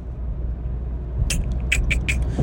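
A car engine revs on a road, rumbling low and steady, and partway through a cluster of sharp, high-pitched chirping bursts cuts in over the drone. No one speaks.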